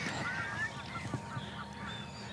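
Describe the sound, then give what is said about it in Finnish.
A flock of geese, returning about an hour after leaving, honks steadily, overlapping calls forming a busy, continuous chorus with no one speaking. “tuntia myöhemmin suurin piirtein sitten, kun me puhuttiin siitä, että hanhet lähti vähän yllättäen tästä, tästä pois, niin niin sitten suunnilleen tuntia myöhemmin kuitenkin hanhet palasivat ja sillä kertaa sitten äänen kanssa.”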